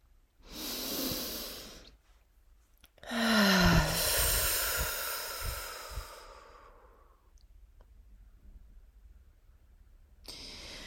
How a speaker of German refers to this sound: Und was mir persönlich immer sehr, sehr gut hilft, ist, wenn ich tief eingeatmet habe, auch wirklich mal einen Laut von mir zu geben, laut auszuatmen durch den Mund.